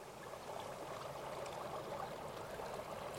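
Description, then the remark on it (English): A small mountain stream flows steadily, a continuous babble and rush of water with no pauses or voices, where a dirt road crosses it at 8,700 feet above sea level on the eastern side of the Wind River Mountains near Atlantic City, among granite cliffs and whitebark pine trees. “Not far from Atlantic City, on the eastern side of the Wind River Mountains, there's a dirt road that crosses a small stream at 8,700 feet above sea level, up among the granite cliffs and white bark pine trees.”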